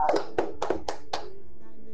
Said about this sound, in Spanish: Muy bien, un aplauso